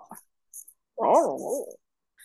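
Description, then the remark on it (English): A voice imitates bubbling with a warbling, up-and-down vocal burble lasting under a second, fairly loud, after a few brief soft clicks and breathy noises. “How do what? you do bubbling sound?”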